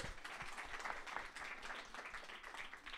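A crowd breaks into steady applause, many hands clapping in a dense, continuous patter that holds at an even level for a few seconds with no voices over it.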